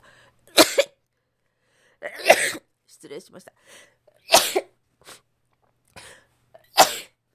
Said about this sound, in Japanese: すいませんくしゃみが出そう